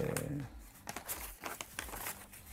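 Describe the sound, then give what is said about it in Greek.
A speaker's papers rustle and crumple in a quick series of crinkly bursts, with a brief murmur of a voice at the very start. “Μη, όχι, έχω εδώ τη χαρτούρα. Εκτός από το φιλικό του Ολυμπιακού. Άμα τα κάνεις τα χαρτιά λίμπα, αυτά παθαίνεις.”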